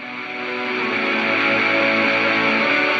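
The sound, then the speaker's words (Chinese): A single long, deep, heavy breath from a person beside a radio host rasps steadily for about three seconds, loud and harshly distorted, swelling slightly at the start and then holding level with no talking. “大家刚才已经听到了，就是 H 君旁边有一个人深沉的喘粗气的声音。”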